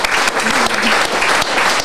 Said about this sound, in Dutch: Dan doen we er nog een applaus bovenop.